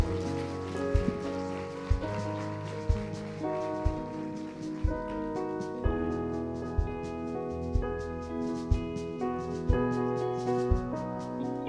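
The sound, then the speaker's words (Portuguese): A church audience applauds Jesus in a dense, sustained wash of clapping over steady keyboard chords and a regular low beat, with no voices heard. “Aplauda Jesus, querido.”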